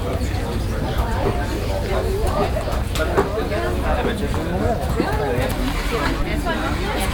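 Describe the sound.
A dense, steady murmur of many overlapping German voices and lively chatter fills the air at the Winterfeldtmarkt outdoor street market, with vendors' calls rising above the crowd's babble.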